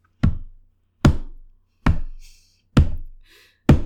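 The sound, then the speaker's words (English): Five loud thumps knocked out one by one at a slow, even pace, each with a short ringing decay, imitating heavy footsteps plodding across a floor. “on the landing just outside their room, they heard five distinct thump-like heavy footsteps.”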